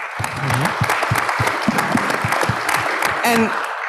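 A short burst of audience applause, steady clapping from a small crowd with dense overlapping claps, a few faint murmurs and a brief whoop mixed in.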